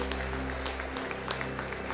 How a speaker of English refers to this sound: We're so excited about that. Let's give a hand one more time for what God's doing in people's lives.